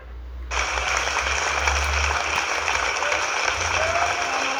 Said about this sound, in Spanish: Bravo, dele un fuerte aplauso, aplauso al invitado especial.